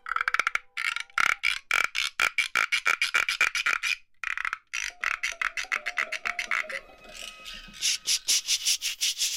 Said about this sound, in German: Instrument, Cricket Rattle. Das ist wie so ein kleines Töpfchen mit einem Fell draufgespannt und von dem Fell geht eine Plastikschnur weg und die dreht man dann um einen Holzstab und dann scharrt das so, fast wie eine Mischung aus Frosch und Zikade.